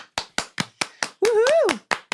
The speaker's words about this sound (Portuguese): Vou até aplaudir